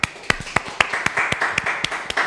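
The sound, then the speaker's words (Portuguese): An audience breaks into clapping, a run of sharp, rhythmic handclaps repeating roughly every quarter second over a bed of scattered claps, steady and moderately loud with no voices. “Palmas aqui também.”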